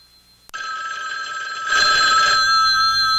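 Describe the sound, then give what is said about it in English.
An old-fashioned telephone bell rings loudly and continuously, a bright metallic clatter that starts abruptly and swells a little stronger midway, with no voices; a ring produced at Universal Studios in the 1970s for a television show opening. “This is the ring.”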